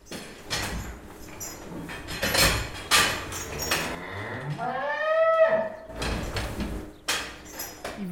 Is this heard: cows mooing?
yes